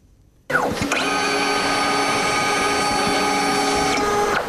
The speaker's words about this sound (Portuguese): O som repete-se diariamente desde 2016, quase 60 mil negativos do Museu de Fotografia da Madeira já foram digitalizados.